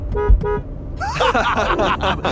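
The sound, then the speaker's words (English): Two quick, bright car horn toots sound in succession, followed by a person talking. “You know, not to toot my own horn. Oh, allow me.”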